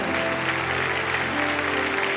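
An audience applauds the King of Kings in a dense, steady wash of clapping that fills the whole clip, with a sustained low musical hum underneath and no voices rising above it.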